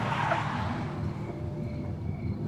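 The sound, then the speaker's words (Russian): Several police cars' engines rumble as the vehicles pull up and stop at a house at night in a small provincial town, with a brief screech of skidding tires at the start over a steady low roar. “Несколько машин подъезжают к дому.”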